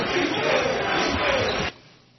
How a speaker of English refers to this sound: Are you serious? That sounds like one of those uh, European soccer games.